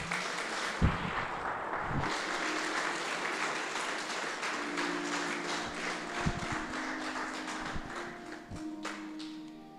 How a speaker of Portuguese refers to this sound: As palmas louvam o Senhor.